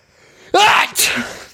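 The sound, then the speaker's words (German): A person imitates a loud, roaring sneeze: a sharp breathy burst followed by a second explosive blast, then trailing off quickly. “Kannst auch dieses, dieses brüllende Niesen.”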